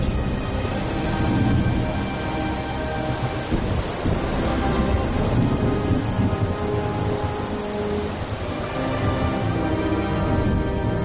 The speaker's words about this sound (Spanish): Una fuerte tormenta en la pequeña localidad de Viescas, en Aragón, produjo una riada que arrasó el camping Las Nieves, dejando 87 muertos y 183 heridos.